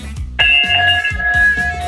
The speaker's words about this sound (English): Well, that is quite a big bell.